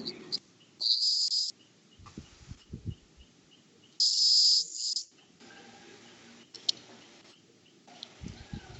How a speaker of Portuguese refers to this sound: Aqui também tem um, um chiadozinho fino em alguém aí, tá? Como se fosse um grilo